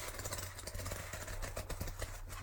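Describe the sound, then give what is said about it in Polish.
Thick pages of a heavy graphic novel of well over 200 pages being flipped, a series of papery rustles and soft flaps over a steady low background hum. “Kartki są grube, prawda?”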